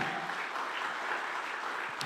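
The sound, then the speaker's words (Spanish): A church audience breaks into loud, dense applause at the preacher's call during a Spanish-language sermon, many hands clapping in a steady, unbroken wash of sound for about two seconds, with a brief faint voice near the end. “Vamos, denle un aplauso fuerte.”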